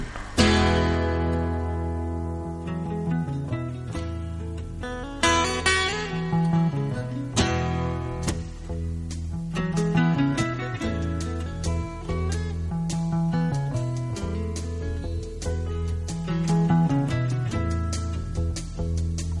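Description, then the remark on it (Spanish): A full-band song plays continuously at a steady, fairly loud level, with rich sustained harmonies, a low bass line and regular rhythmic accents throughout, and no talking over it; a roughly ten-minute song from a 1972 album by a Northern Irish musician. “Es una canción que el músico norirlandés publicó en el álbum de 1972”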